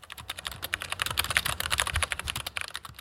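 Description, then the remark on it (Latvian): Rapid, steady typing on a computer keyboard as someone searches a website for associations by keywords, with dense clicking keystrokes running continuously throughout and no voices. “meklēju tās pēc atslēgas vārdiem interneta vietnē Lursoft”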